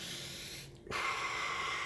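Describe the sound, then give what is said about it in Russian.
Loud, throaty yogic breathing imitating the sound of the ocean, with a rushing, ocean-like hiss: a long airy exhale, a brief pause, then a harsh inhale or exhale drawn through a constricted throat, with no talking. “Я не знаю, зачем он это делает, но это, наверное, он запускает гортанное дыхание, да, вот как в йоге тоже ты сидишь, когда уже там в конце там чуть-чуть медитируешь”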